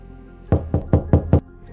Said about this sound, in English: While everyone was getting ready, she knocked on the door of his room.